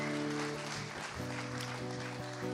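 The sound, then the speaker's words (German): An audience claps steadily in a dense, continuous wash of applause for the speaker's nine years of marriage, with a few tonal hums or cheers mixed in and no clear speech. “und das ist total gut, dass ihr applaudiert, weil der, dieser Applaus, der geht äh, an zwei Personen.”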